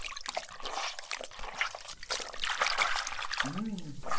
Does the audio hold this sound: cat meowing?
no